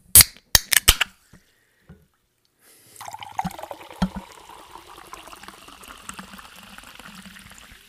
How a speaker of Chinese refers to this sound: 不管你是来自高雄左营，还是来自嘉义柳林，都让我们一起听一听气泡水的声音。